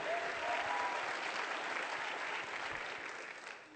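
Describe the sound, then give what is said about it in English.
An audience at CFA's 11:15 service applauds steadily, giving a shout of praise to Jesus, with scattered cheers and shouts of praise mixed into the dense clapping, which stays loud and full for several seconds before easing slightly at the end. “Come on, let me hear you for about five seconds. Give him a shout of praise this morning.”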